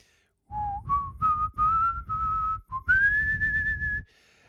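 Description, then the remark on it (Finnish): A person whistles a short tune alone, with clear pure notes stepping upward and then holding a long, steady higher tone before stopping; fairly loud. “voitko hyräillä sitä vähän, niin veli alkoi viheltelemään ja vihelteli suunnilleen näin.”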